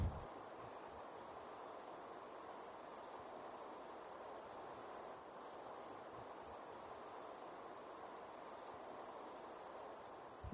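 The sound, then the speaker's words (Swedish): Thin, very high-pitched whistling calls of small birds up in the trees come in four short trilling bursts a couple of seconds apart, fairly faint, over a steady low background rush. “Ja men det är lite så här småvisslingar bara. Okay. Uppifrån träden.”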